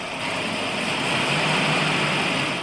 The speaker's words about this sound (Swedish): Så ett nytt rör till bränslet monterades och sen startade bilen utan minsta tvekan. Sådär! Nu fick vi igång den gamla snurran!